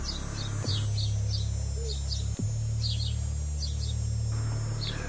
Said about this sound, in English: Apparently annoyed that she continued to walk past it instead of running away, the large bird like monster began making a chirping noise.